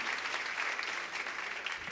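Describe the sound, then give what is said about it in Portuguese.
An audience applauds the Lord for His word during a sermon, a steady, dense wash of many hands clapping at once, sustained for the whole stretch with no voices standing out. “Pode aplaudir o Senhor, é a palavra dele, é para a palavra do Senhor.”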